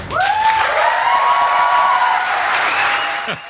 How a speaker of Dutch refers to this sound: Applaus.